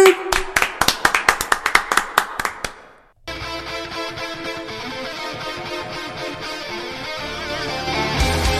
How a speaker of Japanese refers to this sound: 拍手と BGM のタイミング逆だったな BGM 終わった後の拍手だったわパチパチパチの後に。